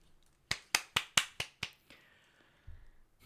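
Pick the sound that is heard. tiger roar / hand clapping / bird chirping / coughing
hand clapping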